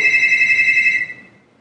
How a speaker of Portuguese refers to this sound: Com certeza não é pra mim esse telefone. Viu? Meia-noite e cinco toca o telefone aqui. E, e, o povo não atende telefone nessa casa.